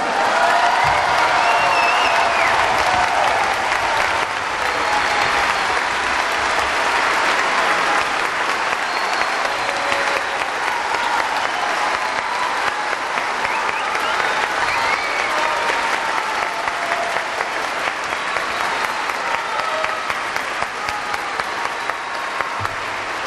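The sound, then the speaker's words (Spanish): A large audience applauds loudly and steadily for over twenty seconds for composer Eduardo Gamboa, a dense wash of clapping with a few faint cheers mixed in, sustained before gradually thinning toward the end. “Fuerte aplauso.”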